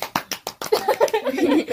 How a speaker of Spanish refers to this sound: Hemos vuelto. Un sonido aplausos.